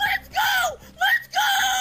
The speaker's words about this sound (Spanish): Esos son los gritos aún más fuertes cuando descubres que se trata de una barajita ultra rara del mariscal de campo de los Patriots de Nueva Inglaterra, Mac Jones,